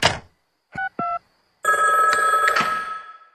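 A telephone rings with a couple of short electronic bursts, then a longer, louder, sustained ringing tone that fades out at the end. Nobody speaks.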